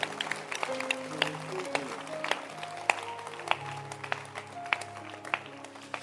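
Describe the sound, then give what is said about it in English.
An audience claps their hands for themselves for having received Jesus, a dense, steady patter of many overlapping claps, with a low sustained tone and murmuring voices underneath. “Can you clap your hands for yourself that you passed stage one?”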